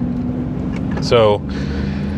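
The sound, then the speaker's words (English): Steady low road rumble fills the cabin of a moving Jeep Wrangler being driven home from work, a constant, loud droning hum beneath a brief spoken word. “if you hear a weird noise in the background it's, that sounds like the road, it's because it is the road.”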